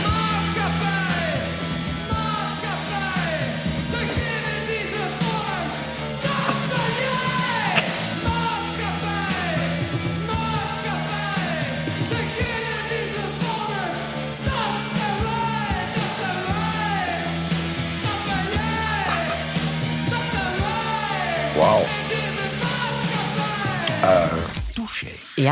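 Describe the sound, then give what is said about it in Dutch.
A 16-year-old singer shouts raw, strained vocals over a driving rock band with distorted guitars and steady drums, in a 1982 rock contest recording, loud and continuous before cutting off abruptly near the end. “Ja, zo klonk jij toen je 16 was. Rock Rally 1982. Groepenbeeld”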